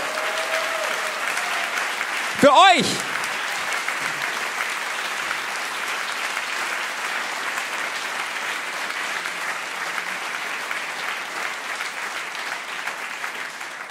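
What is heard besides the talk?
audience applause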